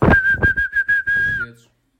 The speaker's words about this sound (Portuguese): E o que é que eu não sei fazer? Assobiar. Sei sim, olha.